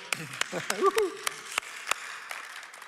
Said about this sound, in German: Come on. Applaus, come on.